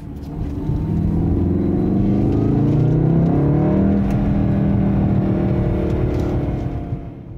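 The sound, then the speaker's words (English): A car's turbo four-cylinder engine revs steadily for several seconds, with fake engine noise piped into the cabin by a German Soundaktor device. Its low droning pitch rises and falls with the throttle, loud, with no one speaking. “which I love, by the way, except for the thing I'm about to tell you, has a turbo four cylinder engine that tries to make up for its acoustic shortcomings by piping fake engine noise into the cabin through a little German gizmo called a Soundaktor.”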